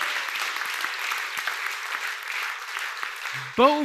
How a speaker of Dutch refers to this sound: Halleluja, daar kunnen we God toch een applaus voor geven. Halleluja.